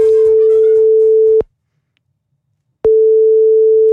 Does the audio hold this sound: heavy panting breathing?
no